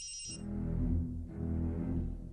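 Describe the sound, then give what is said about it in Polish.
A mobile phone's bright electronic ring sounds briefly and cuts off abruptly as the phone lands somewhere with an odd knock, followed by a heavy, muffled low thumping and rumbling that fills the rest of the moment. No one speaks. “Odpowiada żona, telefon przestaje dzwonić i najwyraźniej ląduje w jakimś przypadkowym miejscu, bo dziwnie stuknął i zamilkł.”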